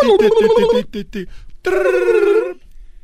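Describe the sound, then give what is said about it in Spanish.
A voice imitates a ringing telephone: a warbling trilled tone, a few short chirps, a pause, then a longer sustained ring, loud. “Está haciendo la voz, el efecto del, teléfono.”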